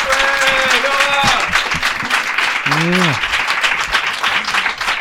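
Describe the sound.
A crowd applauds loudly and steadily throughout as a performer is introduced on stage, a dense wash of clapping, while voices cheer over it with a couple of sustained, rising and falling whoops.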